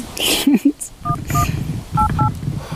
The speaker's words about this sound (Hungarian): Nyomkodja a telefonomat. Uh-huh. Úgy, hogy oda se néz.